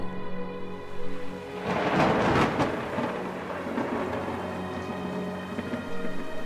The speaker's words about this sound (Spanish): Había tormenta y la ventana se había abierto de par en par por el fuerte vendaval.